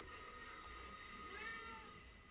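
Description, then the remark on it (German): A cat gives a soft, drawn-out meow, faint, over a steady background hiss and low rumble; no one speaks. “Das ist meine Katze.”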